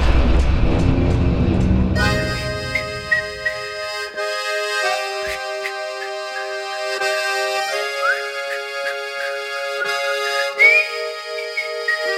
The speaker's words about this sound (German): Haben Sie mal … pfeifen gehört? Im Intro seines Songs …?